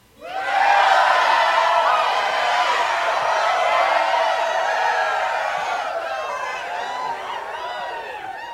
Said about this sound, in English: Our uh, socially distant studio audience is always happy to see us.